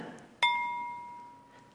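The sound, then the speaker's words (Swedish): A single tap on a heavy glazed ceramic bowl with a blue glaze inside sets off a bright, clear ringing tone, a sign the bowl is whole throughout, that sustains and slowly fades over more than a second, with a soft murmur in the background. “så blir det en ljus ton som säger att den är hel rakt igenom.”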